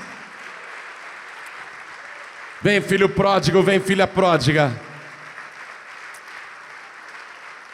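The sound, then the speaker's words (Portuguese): A church audience applauds in a steady, continuous wash of clapping that never lets up while people are invited to come to the front. Midway through, a voice speaks loudly over the applause for a couple of seconds. “Então vem para frente e vamos aplaudir mais.”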